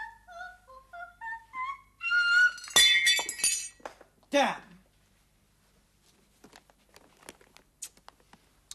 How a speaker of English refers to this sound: I dropped a cup, but I've got the tea ready.